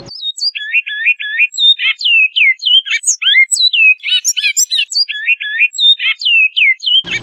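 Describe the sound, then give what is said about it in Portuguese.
A great-billed seed finch sings a flute-style dialect song, a continuous run of clear, whistled notes and rapid looping phrases, loud, with no voices over it. “Por exemplo, o canto flauta”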